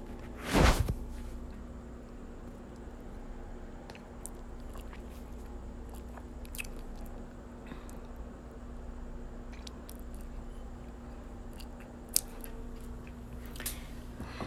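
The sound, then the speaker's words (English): Someone on a balcony sips red Moscato wine from a glass: a brief loud knock at the start, then quiet slurping and swallowing clicks over faint steady hum, with no talking. “Let's take a sip real quick.”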